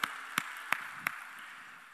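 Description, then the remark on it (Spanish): Applause for the parents of children who played the violin, starting as four sharp, evenly spaced claps in a steady rhythm, ringing out over a constant wash of background noise, with no voices. “Fuerte el aplauso, por favor, para estos papitos.”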